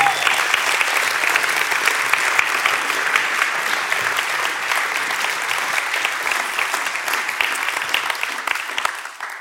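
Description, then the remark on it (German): Sustained audience applause welcoming a former pastor onto the stage fills the whole stretch, a dense, steady clatter of many hands clapping before it tapers off at the very end. “gerne mal einen großen Applaus und wir bitten den auf die Bühne.”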